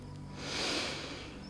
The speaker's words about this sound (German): Ganz tief, so dass er ganz ausgefüllt wird von dem feinen Pflanzengeruch. Es ist ein Geruch nach Sonnenlicht, nach Wachsen, nach Leben. Er schnauft ein